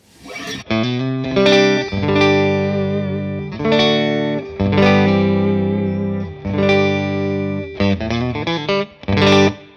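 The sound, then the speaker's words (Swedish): A distorted electric guitar played through two amplifiers at once, an Olsson and an Insulander, plays loud, sustained chords and notes in several separate phrases, rich with bright overtones and short gaps between them. Nobody speaks. “Och så här låter bägge, båda, heter det.”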